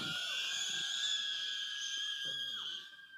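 A crowd of children in a church audience screams together on cue in a big, sustained high-pitched roar lasting about three seconds, with a few lower voices mixed in, before the noise trails off at the end.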